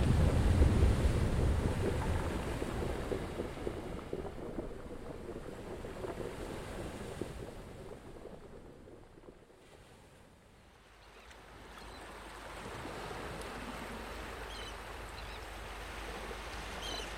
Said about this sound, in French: Puis le doux bruit des vagues d'une mer calme, glissant sur le sable.